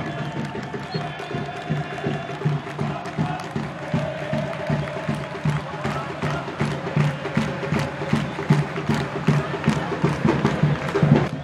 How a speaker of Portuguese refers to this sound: Olha a torcida aí, ó, gritando.